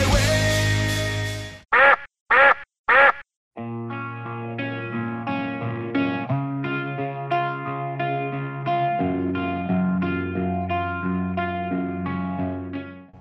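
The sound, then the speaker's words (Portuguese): A loud, raspy burst opens, then three quick, nasal duck quacks in a row before a bright, processed musical tune takes over and plays to the end. “É, o formato de quack.”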